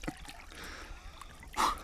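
Quiet water trickling and lapping in a pool, then a brief, louder splash near the end as a person sitting at the pool goes underwater to begin a timed breath hold.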